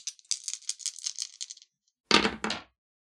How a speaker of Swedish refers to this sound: Och du får, du får slå om de som inte är lyckade, eller hur? Du slår om alla tärningar.